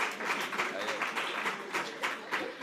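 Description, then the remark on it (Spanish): An audience applauds steadily as Alfonso Serrano is presented, a dense wash of many hands clapping at once, holding a fairly even level from start to finish with small surges along the way. “Esto, es lo que siempre digo, un aplauso.”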